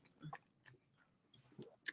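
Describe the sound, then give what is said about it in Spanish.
Quiet wet mouth noises as a drink is swished around to rinse the mouth first, a few short squelchy bursts separated by pauses, ending with a sharper smack. “me dijeron que primero hay que como que enjuagar la boca, ¿no?”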